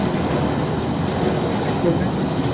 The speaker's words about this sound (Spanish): Como va pasando el avioncito. Se fue. Oye, vive, estás bien cerca del aeropuerto. bueno, es, que Miami, Miami siempre los aviones pasan Exacto, los aviones, los jets, todo.